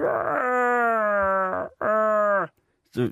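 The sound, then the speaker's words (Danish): A voice imitates the growling wail of Chewbacca, a big hairy creature: two long, loud, strained moaning calls with a rough harmonic tone, the second shorter, followed by a brief breathy sound at the end. “En stor lodden hund med maskinpistol, som kun kan sige”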